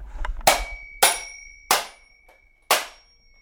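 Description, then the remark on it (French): A small hammer strikes an alarm clock four times at uneven intervals, each sharp metallic hit leaving a bright, high ringing tone that lingers. No one speaks. “Grâce à ce petit marteau, nous voici avec deux temps.”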